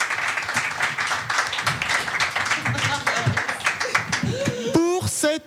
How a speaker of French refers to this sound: On peut donc les applaudir, merci à vous, et peut-être à tout à l'heure, je ne sais pas.